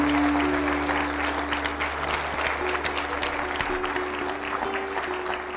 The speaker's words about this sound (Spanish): Dele un aplauso al Señor de la gloria.